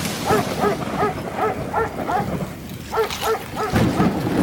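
A dog, Clover, barks repeatedly in short, sharp bursts as it runs towards a rustle in the forest, amid scuffling and thrashing noises of a fight with something, with a rough, continuous background rumble and no speech.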